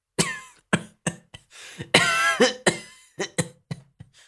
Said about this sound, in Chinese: 他这一激动，直接开骂了，又剧烈的咳嗽了好一阵子。